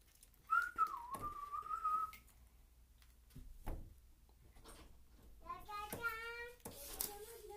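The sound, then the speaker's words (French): A person whistles a brief, wavering tune for a couple of seconds as if nothing had happened, clear, followed by scattered knocks and a stretch of tonal, voice-like sounds. “Comme il a très peur de se faire prendre par un garde-chasse, il lance l'oiseau au bout de ses bras dans le lac et se met à siffler comme si de rien n'était.”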